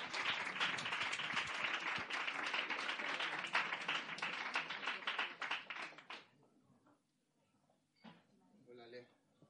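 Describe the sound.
Loud audience applause, dense and sustained clapping for about six seconds before it thins and fades, followed by a few voices speaking briefly afterward.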